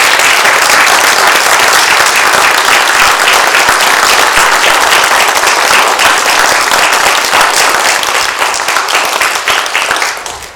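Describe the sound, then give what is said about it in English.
A church audience applauds their new pastor loudly and steadily, many hands clapping in a dense, continuous roar that holds for about ten seconds before thinning slightly at the end. “And I just would like, I think we should have a rounding applause.”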